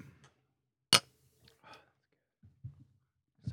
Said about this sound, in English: There was a whisper in the background there